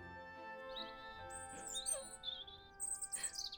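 Several birds chirp and tweet in a forest in quick, high, thin calls that overlap in bursts, with a faint steady hum beneath and no talking.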